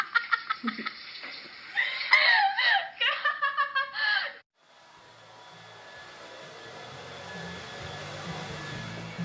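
A few seconds of giggling laughter, then a hair dryer switches on and blows steadily with a rushing, whooshing hiss and low motor hum as a young woman blow-dries her hair after a shower in her rented flat on a Tuesday afternoon, until the end.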